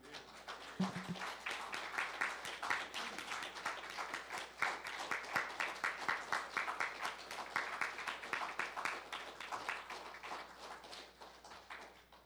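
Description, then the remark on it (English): An audience applauds a group of pastors steadily for about twelve seconds, a dense, sustained patter of many hands clapping at fairly even loudness, with no one speaking over it. “I think they deserve a round of applause.”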